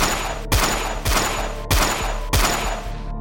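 Four loud gunshots are fired at people in a stopped car in a steady, evenly spaced sequence. Each is a sharp crack with a deep booming tail, over a continuous low background hum. No one speaks.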